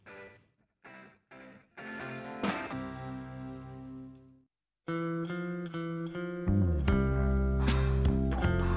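A distorted electric guitar plays choppy rock chords, lets one ring out, then drives into a loud full-band riff with heavy bass. No one speaks.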